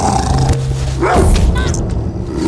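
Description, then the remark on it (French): A large mastiff-type dog barks and snarls aggressively as it attacks and bites a young boy, loud and harsh, with a low rumbling growl under the brief outbursts, in the small Alsatian village of Steg in 1885. “C'est là que le molosse le mord en premier.”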